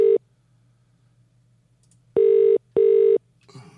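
A telephone ringback tone sounds on the line in a double-pulse pattern: two short, steady buzzing tones close together, then a long pause, heard clearly with no one talking.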